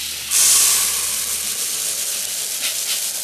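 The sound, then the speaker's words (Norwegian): Small white pellets of ordinary fertilizer (prills) pour into a blender for making explosives, in a steady rushing hiss that swells sharply at the start, then continues at a slightly lower level. No one speaks. “Så da tar vi der til blenderen der.”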